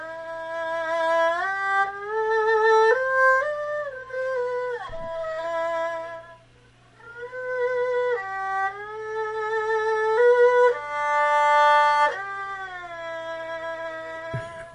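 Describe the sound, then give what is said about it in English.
A solo violin plays a slow, expressive melody up close, with sustained notes joined by sliding glissandos, a brief pause midway, and a faint steady hum underneath. “on a violin it's like it's like okay, this it. and uh, so it's another excerpt from the um, that piece”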